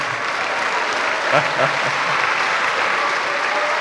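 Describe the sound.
Steady audience applause fills the whole clip, a dense hiss of many hands clapping at once, with faint voices briefly rising underneath near the middle.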